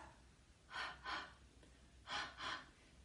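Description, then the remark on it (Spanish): Four short, hazy huffs of breath onto a pair of glasses to clean them, showing the sound of the English H, come in two quick pairs, fairly soft, with no talking. “Es decir, ese sonido de la H inglesa en que limpiamos unas gafas.”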